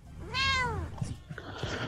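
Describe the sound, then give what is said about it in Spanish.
A single clear, drawn-out cat meow rising then falling in pitch, fairly loud, followed by a second of faint background clatter and noise. “Si usted está contenta, diga miau.”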